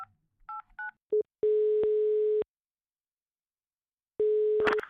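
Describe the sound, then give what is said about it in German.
A few quick dialing beeps on a telephone keypad, followed by a steady electronic ringing tone sounding in long bursts with silence between, clear with no talking. “Warte, ich wähle schon mal.”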